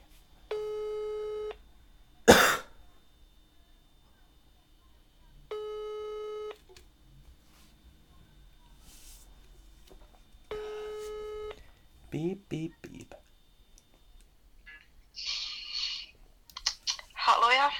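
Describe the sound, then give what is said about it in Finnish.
A telephone ringback tone purrs three times in steady, evenly spaced bursts with silent gaps while calling a female candidate, followed by clicks and a voice answering over the line. “meillä on täällä yksi naisehdokas, joka on lupautunut että hänelle voi soittaa. Katsotaan, että, saammeko häntä kiinni.”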